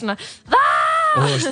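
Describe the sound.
A person imitates a wailing howl with one loud, sustained vocal cry of about a second, rising and then holding steady. Brief bits of speech come just before and after it.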